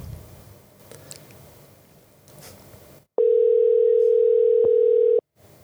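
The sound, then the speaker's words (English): A steady, loud telephone dial tone hums at a single pitch for about two seconds as a call is placed, following a few seconds of quiet background rustle and faint clicks. “So let's uh, just give him a call, hey?”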